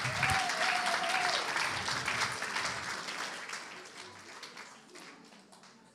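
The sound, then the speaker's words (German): A church audience breaks into sustained applause after a prayer, a dense wash of many hands clapping that stays strong for several seconds before gradually tapering off, with a faint murmur of voices underneath. “Und die ganze Gemeinde sage, Amen. Halleluja. Applaus.”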